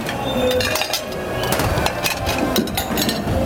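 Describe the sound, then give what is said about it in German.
Dishes clink and clatter over steady running noise as plates and pans are washed in a scullery, with repeated sharp metallic and ceramic knocks at an uneven pace. No one speaks. “Somit sind wir um 22.30 Uhr eigentlich mit dem Durchspülen und Saubermachen in der Spülküche komplett durch.”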